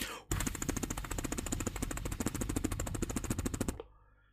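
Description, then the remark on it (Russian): A person mimics a helicopter with their lips, blowing a loud, rapid chopping flutter that pulses steadily for a few seconds before stopping abruptly. “Вертолет это...”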